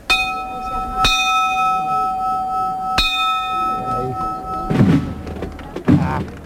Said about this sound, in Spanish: Ahora se reorganiza de nuevo el toque de campana, una campana plateada, los varales también son plateados.